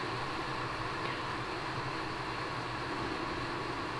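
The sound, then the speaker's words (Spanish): Steady rain falls without a break, a dense, even hiss that stays at the same moderate level throughout, with a low rumble underneath and no voices. “Sí sigue lloviendo.”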